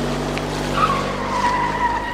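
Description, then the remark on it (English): A car's tires squeal loudly as it pulls away, a sustained high-pitched screech over a steady engine rumble, lasting a couple of seconds with no voices, played as a sound effect from a soundboard app. “We got my car's leaving. I'm I'm out of here.”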